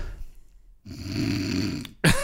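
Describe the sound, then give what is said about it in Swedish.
A voice imitates a man who fell asleep during a film, a single long, rumbling snore, a drawn-out buzzing inhale ending in a quick, sharp exhale. “Då har jag ju somnat.”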